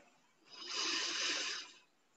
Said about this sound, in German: Tief in den Bauch ein und die Ausatmung verlängern wir jetzt noch ungefähr um die doppelte Länge. Atmen durch die Nase tief in den Bauch ein.